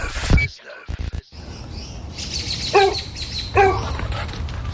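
dog barking

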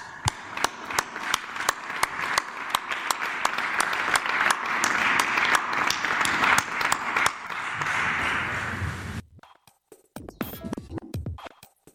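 applause

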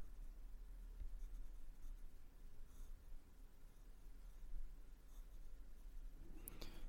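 pen writing on paper

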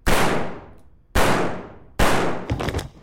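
series of gunshots

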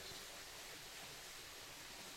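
flowing water

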